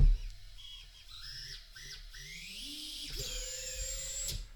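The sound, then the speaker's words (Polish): Small FPV drone motors whine and rev up and down in rising and falling pitched sweeps, a buzzing high-pitched tone with a low rumble beneath and no talking. “I wygląda na to, że on jest bardzo mocny, jeśli chodzi o te silniki.”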